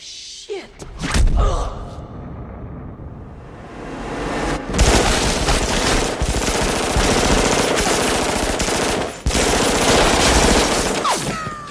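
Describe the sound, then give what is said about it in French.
Loud bursts of rapid automatic machine-gun fire run almost nonstop, dense rattling volleys broken only by brief pauses, with sharp impacts and clattering debris, from a film's lobby shootout where Neo and Trinity take on a building's security staff, shot in a real building in Australia. “L'immeuble dans lequel se passe cette orgie de balle n'est pas un décor de studio, mais bien un véritable édifice qu'on peut trouver en Australie.”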